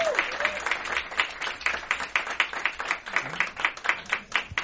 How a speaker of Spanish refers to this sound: Un aplauso muy fuerte para el invitado de hoy, de beber bondigas, Manuel Javois. Un aplauso fuerte para él.